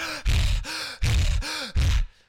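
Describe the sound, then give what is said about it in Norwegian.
A person demonstrates aggressive hyperventilating: rapid, forceful, heavy breaths in and out, about four loud gusts in quick succession, with no talking. “Nå ble jeg faktisk svimmel pga. hyperventileringa.”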